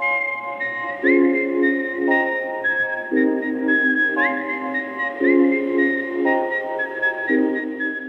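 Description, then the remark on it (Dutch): A clear, steady whistled melody, the tune whistled by Daryl Hannah in Kill Bill, with distinct sustained notes stepping up and down in a slow, regular rhythm, backed by a soft accompaniment; no one speaks. “dat, dat, deuntje dat Daryl Hannah dan fluit.”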